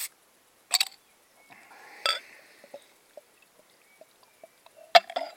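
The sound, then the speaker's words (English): A black craft beer is poured into a glass, a soft fizzing gurgle framed by a few sharp clinks, then scattered quiet drips and ticks as the pour settles. “Let's get this out into my glass and see what I think.”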